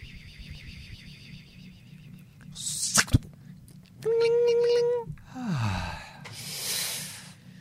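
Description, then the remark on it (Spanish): A voice imitates a magic spell: a sharp burst, then a steady high sung tone, a quick downward swooping glide, and a final breathy hiss, all over a low background hum. “Vamos a hacer sonidos eh, que, representen magia.”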